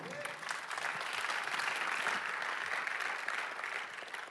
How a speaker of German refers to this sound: Applaus,